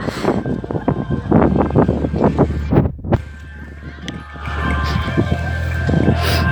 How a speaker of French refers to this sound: J'aimerais vous faire entendre le bruit du vent dans les voiles. C'est super ça aussi. Je trouve ça vraiment magique.